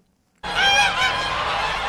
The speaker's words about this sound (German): 1000 Gänse schnattern, watscheln und picken auf der großen Wiese am Ortseingang des Stuttgarter Stadtteils Möhringen.